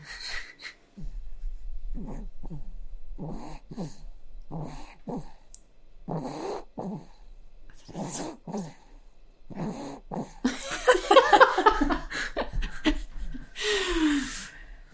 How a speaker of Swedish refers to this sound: måste micka upp den här snarkningen.